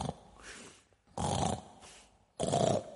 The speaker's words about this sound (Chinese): 胖妖怪昨天打了一夜，累坏了，正在洞里呼噜呼噜睡得正香呢。